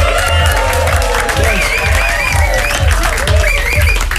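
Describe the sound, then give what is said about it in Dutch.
A studio audience breaks into loud, sustained applause, dense clapping mixed with cheers and whoops carrying on steadily throughout, with voices calling out over it. “Nou, ladies and gentlemen, nog één keer een heel groot studieapplaus...”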